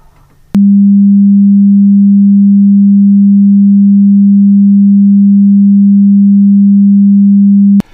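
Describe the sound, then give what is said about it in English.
A steady, low-pitched pure tone at about 200 hertz, representing the average fundamental frequency of women's voices today, hums continuously at constant loudness for about seven seconds, starting and stopping abruptly with a faint click, with nothing else in the background. “And now here is what they sound like now, closer to 200 hertz.”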